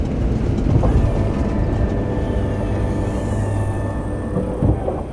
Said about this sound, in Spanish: Miguel sabe que este ruido es absolutamente normal. Es el sonido del tren de aterrizaje replegándose.